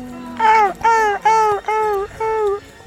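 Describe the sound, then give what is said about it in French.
A person imitates a seagull's cry with five loud, evenly spaced wailing calls, each a short high-pitched squawk that dips slightly in pitch, with no other sounds. “Je suis une mouette.”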